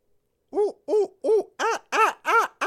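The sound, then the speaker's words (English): A person imitates a monkey with six quick, staccato hoots in a steady rhythm, each a short rising-falling voiced call, the later ones louder and brighter. Clear, with no other talk. “uh, one teacher I, uh, that I know of uh, does them very much like a little monkey”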